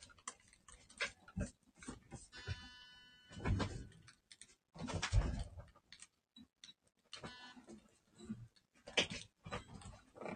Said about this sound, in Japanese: 猫が騒いでおります。